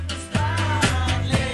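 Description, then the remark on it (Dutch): Music that has started at a campus plays steadily with a strong, rhythmic bass line and sustained melodic tones, punctuated by regular beats roughly every half second; no voices are heard. “Intussen, je hoort het op de achtergrond, is de muziek gestart.”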